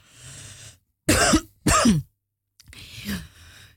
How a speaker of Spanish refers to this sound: Eh, ya me dio aquí la tos, disculpen.